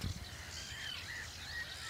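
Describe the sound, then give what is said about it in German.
Faint birdsong of a Eurasian golden oriole: a few soft whistled phrases carried over a steady hiss of outdoor ambience, with no voices present. “Das ist der Pirol, der da singt.”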